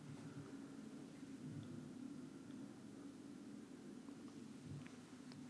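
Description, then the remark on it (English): A steady, low droning rumble of an airplane passing overhead, continuous and unchanging for the whole stretch, fairly soft, with no voices. “I hear that and I just think, why couldn't that have been a bird or Superman? Those wouldn't have been so loud to interrupt my podcasting.”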